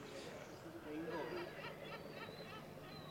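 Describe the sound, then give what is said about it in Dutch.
Soft, steady lapping of water with a few gull cries, set against a faint murmur of voices. “Hoor je het water kabbelen op de achtergrond? Oh ja. Meeuwen?”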